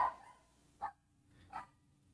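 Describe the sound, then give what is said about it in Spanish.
A dog barks three times in short, sharp bursts spaced about three-quarters of a second apart, moderately quiet against a low background hum. “perdón, es que tengo el perro ahí ladrando.”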